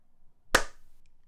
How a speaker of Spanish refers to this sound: De nuevo, aplaude de nuevo.